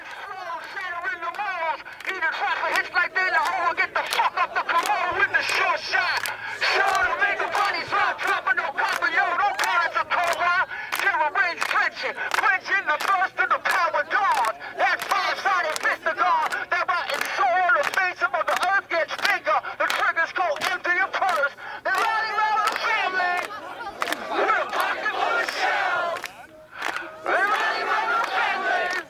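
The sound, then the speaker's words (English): On September 2, 2008, performers with a megaphone beatbox and sing with a crowd: the crowd chants and sings loudly together while sharp, rhythmic percussive beatbox hits punch through steadily, the amplified voice sounding harsh and distorted through the megaphone. “And they just had a megaphone, and that's kind of what what it is.”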